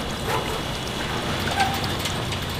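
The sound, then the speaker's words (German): Firefighters operate a rope winch hauling a barrel in a catch net aboard a boat on the starboard side onto the deck, making a steady, dense mechanical rattle and clicking throughout, with a couple of faint, thin squeaks in the middle and no voices. “Okay, dann betätigen die Feuerwehrleute jetzt die Seilwände.”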